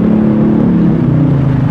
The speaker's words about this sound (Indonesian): Nah ini bisa dengar suara kendaraan sebelah kanan dan kiri saya